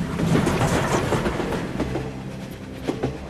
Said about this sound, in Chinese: 当呼啸而过的高铁穿过那些隧道时，他们正站在绿皮火车上，一步步接近家乡。